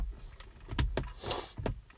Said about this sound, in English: I mean, you know, and I'm as I'm trying to put my coffee down, and as you guys know, like um, I record these in my car, these podcasts, a lot of them, for the closest thing to soundproof that I have, and I'm sitting in my garage.